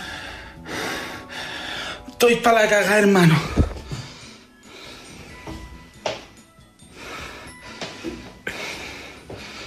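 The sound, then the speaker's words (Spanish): Heavy, ragged panting from a man with a racing heart after he hit himself hard, with loud breaths repeating every second or so. A man speaks briefly partway through, and the breathing continues on either side. “Escuchen la respiración, el detalle, ¿no?”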